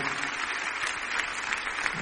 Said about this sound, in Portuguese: Você pode aplaudir o nome de Jesus. Se é para Jesus, pode ser mais forte o seu aplauso, amém?